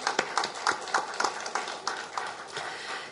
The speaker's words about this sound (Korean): 이런 모든 은혜에 감사하는 마음을 담아 이 시간 우리 모두 좋으신 아버지 하나님께 뜨거운 박수로 영광 돌리겠습니다. 아버지 감사합니다.